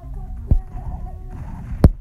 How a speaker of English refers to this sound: Now can you please stop with this horse?